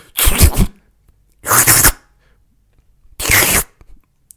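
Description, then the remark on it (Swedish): Three short, loud breathy hisses, each under a second with pauses between, as someone vocally imitates molten tin hissing and sizzling as it hits water. “Jag är ganska bra på att härma det, tycker inte det? När man sätter glödande tenn i vatten.”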